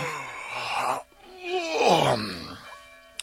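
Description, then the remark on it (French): A human voice imitates a wolf's yawn as the wolf sits on its haunches: a short breathy groan, a brief pause, then a long, loud moaning yawn that rises and slides down. “Il avait mis son gilet rouge sa belle langue rouge et ses trois rangées de dents les plus pointues qui brillèrent une seconde au soleil couchant quand il se mit à bâiller assis sur son derrière.”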